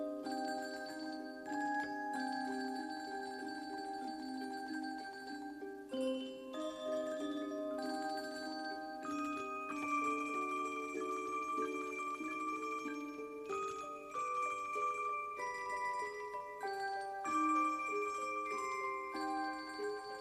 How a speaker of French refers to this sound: nous allons donc entendre un extrait de la bande originale Elephant Man euh, dans lequel John Hurt tenait le, le rôle principal.